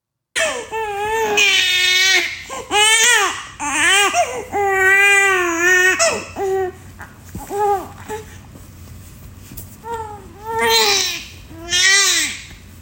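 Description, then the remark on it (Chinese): A second-born infant cries in repeated wailing bursts, each rising and falling in pitch with short gasping pauses between, loud and insistent over roughly a dozen seconds with no talking. “来给你们听听看，我今天一整天最常听到的声音。”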